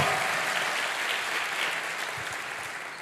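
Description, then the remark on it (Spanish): A church audience applauds the scripture reading steadily, a dense, even wash of many hands clapping at once that holds at a fairly loud level for about three seconds without voices standing out. “Quiero que le dé un fuerte aplauso a esta palabra.”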